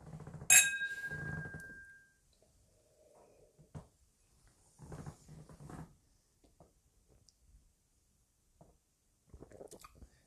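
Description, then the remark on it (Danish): Whisky glasses clink once in a toast during a whisky tasting, a bright ring hanging for about a second, followed by quiet sipping, swallowing and soft mouth sounds with no talking. “Skål, man. Skål.”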